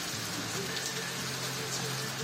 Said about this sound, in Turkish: Bir haftayı aşkın süredir şiddetli yağmur ve selle mücadele ediyor Karadeniz. Sel tehlikesi ise her an devam ediyor.